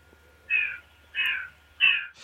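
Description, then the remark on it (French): Three harsh, crow-like caws from a passing bird, evenly spaced about two-thirds of a second apart, fairly loud and clear against a quiet background with a faint low hum. “Juste au moment, où il y a euh. l'oiseau qui passe.”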